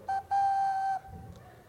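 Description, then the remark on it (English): Someone whistles a trumpet-like call: a short blast, then a long held note at the same steady, fairly high pitch. The whistle is loud and stands alone, with no talking. “You like my trumpet?”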